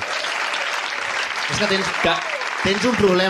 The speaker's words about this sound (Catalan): S'ha tallat el, el cabell per vosaltres, així que un aplaudiment, sí.